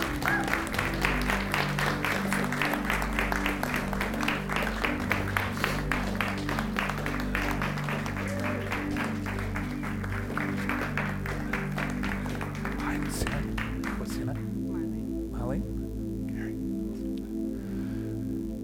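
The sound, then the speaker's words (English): A church audience at a morning service applauds two church members asked to come forward, clapping steadily for about thirteen seconds, dense clapping over a sustained organ or keyboard chord, then the clapping fades out and the held music continues alone. “So, if I could ask those two people to please come forward, let's give them a, a round of applause this morning.”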